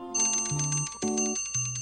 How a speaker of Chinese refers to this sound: 当当当，吃午饭了